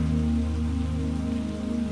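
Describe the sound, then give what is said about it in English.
Steady rain falls continuously in a dense, even patter, fairly loud, with a soft sustained low hum beneath it and no voices. “And when you are ready, begin to gently let go of this visualization, knowing that the rain will always be here for you whenever you may want to return.”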